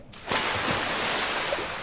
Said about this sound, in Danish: Han smed den så langt ud i søen, som han kunne. Og halskæden brød vandoverfladen.